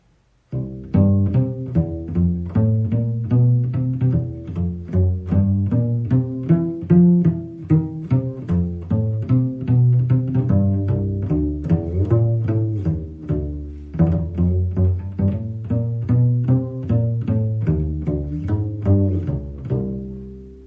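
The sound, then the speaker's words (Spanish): A cello is plucked pizzicato in a walking jazz bass line imitating a jazz double bassist, a steady stream of low, resonant notes with sliding glissandos between some of them, played alone. “Después tenemos también el tema del, bajo, de hacer como si fuera un bajo jazz.”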